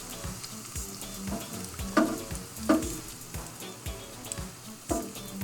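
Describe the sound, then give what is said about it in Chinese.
Shrimp frying in hot oil, the shrimp turning white and the oil turning red: a steady, moderately loud crackling sizzle, broken by a few sharper pops and spits at irregular moments. No voices are heard. “下的油颜色都开始变红了。”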